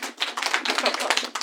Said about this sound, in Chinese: 我用了一个非常重要的这个综艺剪辑的技巧，就是掌声接一下。对，就当你就是有一个剪辑点，对，可能需要掌声接一下啊。